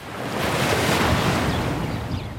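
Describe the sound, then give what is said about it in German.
Gentle Mediterranean waves wash onto the sandy Dor Beach south of Haifa under a blue sky, in a steady, broad hiss of surf that swells and eases slightly, with a soft rush of wind in the background. “Blauer Himmel, die Wellen des Mittelmeers schwappen an den Sandstrand des Dor Beach südlich von Haifa.”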